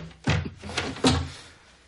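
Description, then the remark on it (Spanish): An apartment door with a door chain is unlocked and pulled open: two solid wooden clunks about a second apart, with faint rattling and scraping between them and a short fading tail. No voices. “Ya te abro. Quita la cadena de la puerta.”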